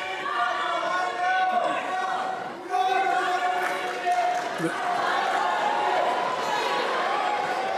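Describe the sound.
A rowdy crowd commotion of protesters disrupting the audience while Vice President Biden speaks, with many voices shouting and yelling over one another, loud and continuous throughout, with a brief dip in the noise partway through.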